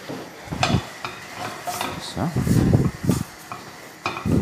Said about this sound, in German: Damit das ruckzuck umgeladen, ausgewaschen, die große Pfanne. So, und stell die große Pfanne jetzt wieder auf.